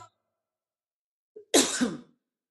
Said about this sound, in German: Sorry, ich musste mal kurz husten. Ich habe mich gerade verschluckt. Kein trockener Husten